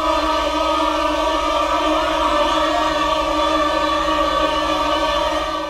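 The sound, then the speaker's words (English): A chorus of many voices sings as low as it can, holding a dense, steady chord for several seconds, its tone wavering and fluttering rapidly as the singers pass their hands back and forth over their mouths, really fast. “Uh, he has them put their hands over their mouth and take them off again, back and forth, really fast.”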